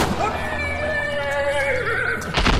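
A horse whinnies loudly in one long, quavering call that wavers and trails downward, followed by a brief rough burst of noise at the end.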